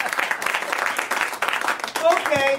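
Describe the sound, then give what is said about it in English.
A crowd breaks into steady, fairly loud applause for about two seconds, then a single voice begins speaking as the clapping carries on underneath. “How about a round of applause if you get a postcard reminding you to come see your dentist?”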